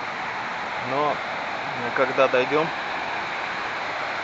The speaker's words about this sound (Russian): это шумит река.